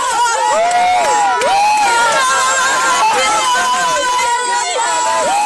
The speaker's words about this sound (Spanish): Es una algarabía que se tienen.